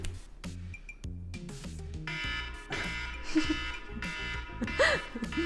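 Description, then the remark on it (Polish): A 5-second game timer alarm sounds: a loud, steady run of repeating electronic buzzes and tones that pulse rhythmically for several seconds, with no one speaking over it. “Mamy timer tutaj, widzicie? Jak się skończy 5 sekund, To będzie.”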